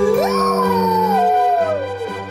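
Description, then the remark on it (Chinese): Wolves howling at the big, round moon: one long, loud howl swoops upward, holds, then slowly slides down in pitch over about two seconds, with a low steady drone underneath. “每当月亮又大又圆的时候，小狼哥最爱的爸爸妈妈、哥哥姐姐们就会对着月亮嚎叫：“啊呜，啊呜！”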